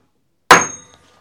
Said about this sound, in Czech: Ty jsi trefil skleničku.